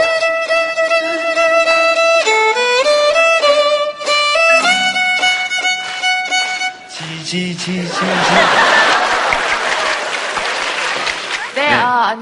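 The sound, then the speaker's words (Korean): A bright, stepping musical jingle plays for several seconds, then gives way to a loud, dense wash of audience applause and clapping welcoming a guest to the show, continuing steadily to the end. “어서 오세요. 박수 부탁드리겠습니다.”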